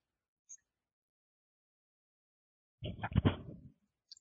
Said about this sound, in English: Pardon me while I sip some coffee.